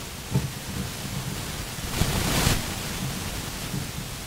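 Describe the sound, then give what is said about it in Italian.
A steady wash of static-like interference noise with a low rumbling crackle, briefly surging louder for a moment midway before settling back; no voices are heard. “C'è qualche interferenza.”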